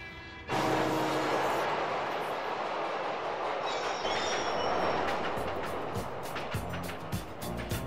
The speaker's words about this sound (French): Dans la scène d'ouverture du film, on nous présente tout d'abord le lieu de l'action, donc New York, avec les bruits de la ville, du métro et des voitures.